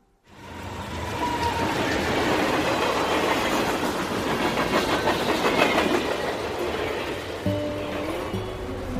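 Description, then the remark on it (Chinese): A northbound train clatters steadily along the rails, a loud, continuous rumble with rhythmic clicking from the wheels, and a low droning tone rises near the end. No one speaks. “在火车站买了北上的车票，可是中途我们就下车了。”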